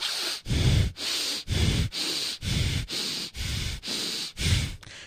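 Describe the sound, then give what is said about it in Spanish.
Rapid, deep breaths in a steady rhythm, about ten forceful inhales and exhales in five seconds, breathing as quickly and as deeply as possible as a breathing exercise, loud with no talking. “Este respire pero rápidamente y lo más profundo posible.”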